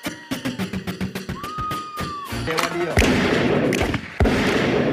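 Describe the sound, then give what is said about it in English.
A DJ rewind effect: the music stutters in fast rhythmic pulses with a pitch sweeping across them, then cuts into loud, dense blasts of sound that continue to the end. “Record means rewind, a gunshot means forward. You requested it, so we rewind.”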